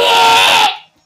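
A loud, shrill scream from a person, sustained for under a second and then cutting off abruptly, with no talking over it.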